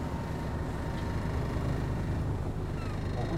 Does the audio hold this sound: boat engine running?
yes